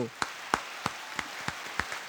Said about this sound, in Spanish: Ah, pues vamos a darle un aplauso aquí al viejo,